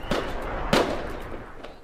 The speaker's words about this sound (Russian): Ставь сюда звук э, фейерверк.